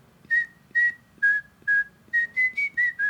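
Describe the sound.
A person whistles the melody of a song, nine clear tonal notes in a steady rhythm, the last few quicker and slightly rising in pitch, with faint background noise underneath.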